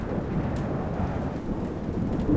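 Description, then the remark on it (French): Heavy pouring rain hisses steadily under a deep, continuous rumble of thunder during a storm, with gusting wind rushing into a tower adding to the dense, loud roar. No voices are present. “Le vent s'engouffre dans la tour, l'air devient soudainement glaçant, et le bruit du tonnerre, de la pluie battante et des bourrasques est effrayant.”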